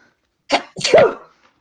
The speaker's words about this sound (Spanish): Ah, yo acabo de tener erupción nasal en este momento con ese estornudo y, seguro mis mocos van a caer en alguno de los polos.